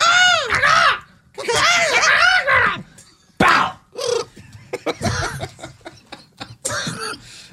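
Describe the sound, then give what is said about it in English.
A voice mimics a bald eagle's screech: two long, shrill, wavering cries up front, followed by a string of shorter, choppy shrieks and breathy bursts, loud throughout. “Can we just do the rest of the the, the show exclusively speaking in bald eagle?”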